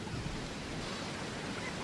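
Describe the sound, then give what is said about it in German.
Continuous hissing wash of shallow sea water, about 20 centimetres deep, and surf in Australia in winter, the water cold: a steady fairly quiet rush with no distinct individual breaking waves and no voices. “Wir befinden uns jetzt in einer Meerestiefe von 20 Zentimetern.”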